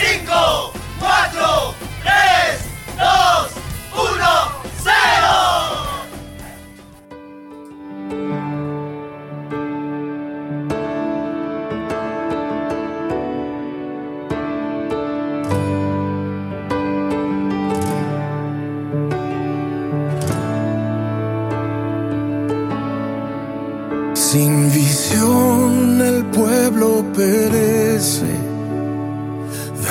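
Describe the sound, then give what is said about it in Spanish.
A worship song starts live: a crowd cheers and shouts in bursts for a few seconds, then sustained keyboard pads and deep bass notes swell steadily, the band building up loud and full. “Sin más que decir, vamos a escuchar este tema.”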